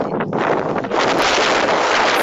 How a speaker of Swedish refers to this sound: Ah, vad det blåser.